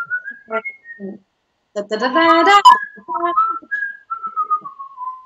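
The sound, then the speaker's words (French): A person whistles the La Cucaracha melody in imitation of the musical horn of a camping-car, sounded at a coach: a quick run of bright, bouncy notes, a dense warbling middle stretch, then gliding tones that trail downward. “Et puis, pour me faire pardonner, j'ai actionné mon, mon klaxon à moi, que c'est la, c'est la cucaracha”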